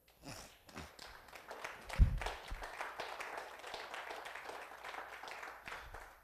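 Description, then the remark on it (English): An audience claps together, giving God a hand clap of praise after a sermon, in a dense, steady wash of applause that holds at an even level for several seconds, with one louder low thump early on. “If this message has blessed you, give God a hand clap of praise.”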